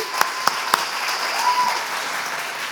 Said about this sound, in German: Give her a clap, please. Klatschen auf sie.